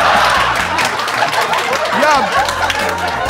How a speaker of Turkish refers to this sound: Bir tek siz eğer program canlı olsaydı canlı olması muhtemel bu alkış efektini duyuyorsunuz.